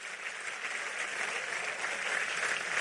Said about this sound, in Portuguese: Aplauda ele aí.